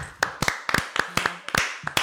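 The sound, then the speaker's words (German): A few people clap their hands together for a couple of seconds, a quick run of sharp, bright claps in a loose, uneven rhythm with no one speaking. “Wollen wir alle klatschen kurz?”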